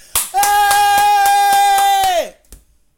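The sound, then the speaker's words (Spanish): Quick, evenly spaced hand claps, about nine in a row, loud, imitating a mindless audience, over a long sustained vocal hoot that slides down in pitch as the clapping stops. “O sea, aplauden así como, unos monos, como que no piensan.”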